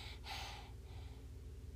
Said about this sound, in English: you can breathe a little quieter.